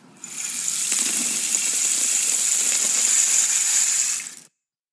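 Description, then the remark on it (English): A homemade rain stick tipped over, releasing a steady, dense hiss of tiny pellets cascading through it for about four seconds, bright and rain-like, with faint clicks underneath before it abruptly stops. “It's so soothing, and the best part is that I made these rain sticks myself.”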